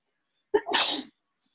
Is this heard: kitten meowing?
no